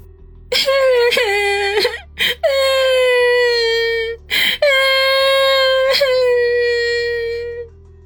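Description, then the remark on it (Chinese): Suppressed sobbing a short way ahead, in a high, strained voice: a few long, drawn-out wailing cries broken by sharp catches of breath, with no other talk. “前方不远处忽然传来压抑的抽泣声，王宇先是一愣，随即便缓过神来，手脚并用的爬了过去”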